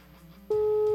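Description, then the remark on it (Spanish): A steady electronic telephone ringing tone on an outgoing call cuts in abruptly halfway through and holds loud and unbroken to the end after a quiet, murmuring start. “Sí, sí, estamos escuchando, estamos escuchando el teléfono sonar.”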